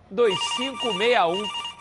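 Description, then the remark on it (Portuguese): A telephone rings in a radio advertisement for Roda Car Pneus. It is a warbling electronic tone with a swooping, wavering pitch over steady high beeps, lasting just under two seconds. “Ligue lá, ó,”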